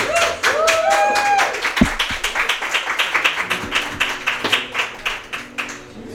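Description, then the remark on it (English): An audience applauds to welcome performers, with dense, steady clapping that keeps an even rhythm throughout, opening with a brief rising whistle or cheer over the claps. “get one last uh, round of applause and welcome.”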